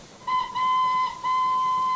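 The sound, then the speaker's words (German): A steam locomotive running in a circle on iron tracks sounds its whistle in three blasts, a short toot followed by two longer sustained ones, loud and steady in pitch, with no voices. “eine dampfbetriebene Lokomotive auf eisernen Gleisen im Kreis herumfahren”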